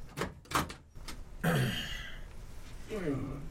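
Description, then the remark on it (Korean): A few sharp metallic clicks, like a latch being worked, then a metal container door swings open with two drawn-out, grinding creaks, opened after 5:30 by a supervisor wearing an olive-drab work jacket. “5시 반이 지났을 때 소장이 평소에는 답답해 입지 않는다는 국방색 작업복 점퍼를 걸쳐 입고 컨테이너의 문을 열었다.”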